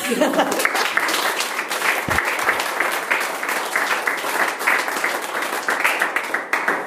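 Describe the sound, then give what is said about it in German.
Sustained applause from an audience at the end of a lecture, a dense crackle of many hands clapping at a steady, even loudness for several seconds without any talking over it. “Wir klatschen jetzt erstmal.”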